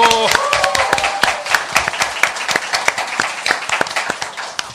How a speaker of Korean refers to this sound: 국민TV 시사 토크 만마이스 여러분의 힘찬 박수와 함께 시작하겠습니다.